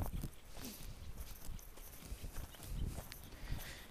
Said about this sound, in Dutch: Zoals ik nu op dit moment buiten wandel. Dat hoor je waarschijnlijk. Misschien hoor je wat vogeltjes en hoor je wat gekraak van wat grind onder mijn voeten.